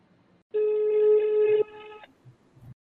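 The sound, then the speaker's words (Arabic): A single steady electronic phone ringback tone sounds for about a second and a half, loud at first and then dropping to a quieter tail before cutting off, with faint background noise. “طيب، اذا جاي يتكلم يتكلم طرق فينا اسمه الطوط مرتين”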